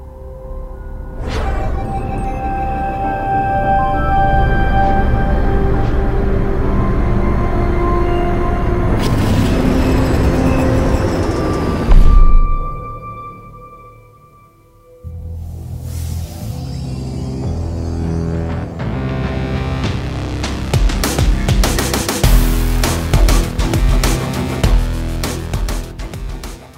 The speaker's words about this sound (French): je vous ai diffusé la partie où on voit un vaisseau se poser et, euh, les portes s'ouvrir